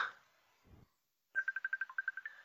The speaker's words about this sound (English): his phone's ringing